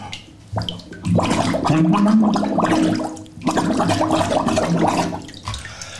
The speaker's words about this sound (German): Es sprudelt ja nur.